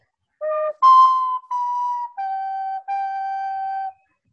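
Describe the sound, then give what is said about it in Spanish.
A flute plays a short, slow instrumental tune of about five sustained notes, each held clearly and steadily, fairly loud, with no voices. “Antes de, tocar la flauta, dudo mucho que aplaudan.”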